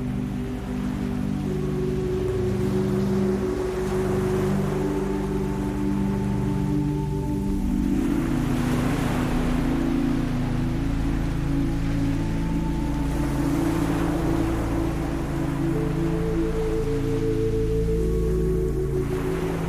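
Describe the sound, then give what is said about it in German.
Gentle ocean waves wash ashore in slow, soft swells that rise and fade every few seconds, over a steady low droning hum. No one speaks. “Das sanfte Rauschen der Wellen wird zu deiner persönlichen Melodie der Entspannung.”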